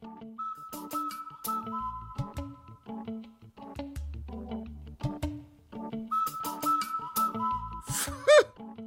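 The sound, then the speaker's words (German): A whistled imitation of a cuckoo call, sounded as sustained steady tones in two stretches, over busy percussive clattering, ending in a quick sliding squeal. “Sie bemühten sich besonders, den Kuckucksruf genau zu treffen.”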